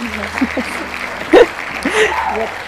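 An audience claps in a steady, continuous patter for a few seconds, welcoming a guest delegate from CISDI, while voices call out and cheer over it, with a brief louder burst midway.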